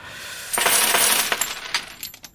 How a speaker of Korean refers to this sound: 동전이 쏟아졌네요. 제 동전은 아니고요. 이펙트 사운드입니다. 오늘 보물 소리예요. 미리 듣게 한 겁니다.